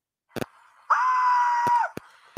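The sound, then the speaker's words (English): A money sound effect button is pressed by mistake: a click, then a bright, sustained ringing chime lasting almost a second, followed by a few sharp clicks. No one speaks. “I didn't mean to press that um that that um money sound.”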